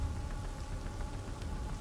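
rain falling

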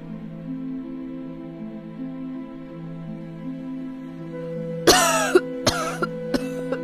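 coughing

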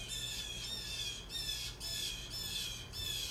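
birds squawking outside

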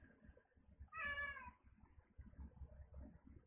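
cat meowing

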